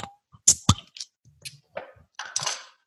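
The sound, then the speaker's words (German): A bottle of Kranewitt, a Saison beer brewed in the South Tyrolean style, being opened: a few sharp metallic clicks and clinks in quick succession, then scattered softer knocks and a brief hissy burst near the end. “Okay, dann machen wir es mal auf, oder?”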